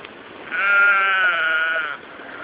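A goat gives one drawn-out, wavering bleat lasting over a second, fairly loud, with a faint background hiss before and after and no voices.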